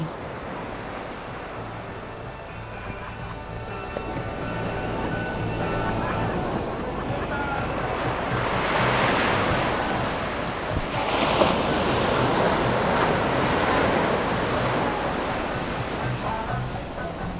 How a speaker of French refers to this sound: Au pied du phare, comme Dieu le veut, la mer et son éternel ressac de musique. Il faut écouter la musique à l'intérieur de la vague.